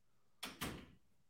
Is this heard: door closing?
yes